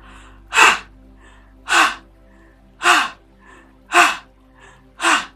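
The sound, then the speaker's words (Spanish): Five forceful breaths in a steady rhythm, each a sharp, loud mouth inhale or gasp followed by a released exhale, with quiet pauses between them, done as a release breathing exercise through the mouth during meditation. “Absorbemos con fuerza y lanzamos el aliento, como si botaras la energía tóxica.”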